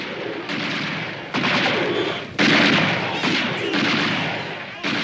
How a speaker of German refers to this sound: Und dann, dann biegt der Konvoi um eine Ecke. Von welcher Seite der erste Schuss abgefeuert wurde, ist nicht überliefert, doch es folgen weitere.